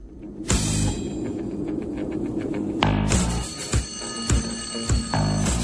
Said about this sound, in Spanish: Un despertador. Exactamente.